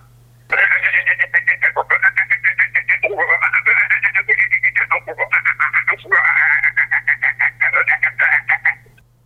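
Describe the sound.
A man's voice imitates the song of a green frog, with rapid rhythmic chuckling, cackling pulses repeated in several bursts over a steady low hum.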